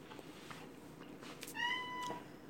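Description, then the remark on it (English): A male cat named Tiger lets out a single drawn-out meow, moderately loud, with a rising then steady tone, over a quiet background and no talking. “That's my uh, male cat. He likes to talk.”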